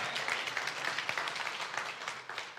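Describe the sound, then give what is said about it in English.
Scattered, moderate audience applause with uneven, loose clapping that never builds, a broad steady patter of hands lasting a couple of seconds and tapering slightly at the end. “Thank you for that half hearted applause.”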